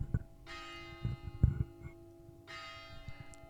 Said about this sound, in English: By the way, guys, it's nearly ten o'clock, oh, so you're yeah. gonna hear some chimes in a second. Oh, there you go.